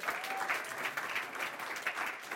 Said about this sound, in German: Das ist richtig Hammer. Richtig schön. Gebt ihr mal einen fetten Applaus dafür.